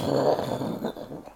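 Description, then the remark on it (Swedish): A voice imitates rolling thunder with a low, gravelly rumble held steadily for about a second and a half, fairly loud, fading slightly at the end. “Och oska, det här när det, när det låter så här.”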